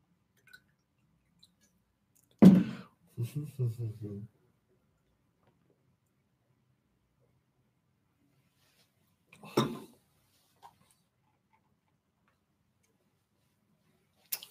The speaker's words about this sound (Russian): Сейчас я воды попью.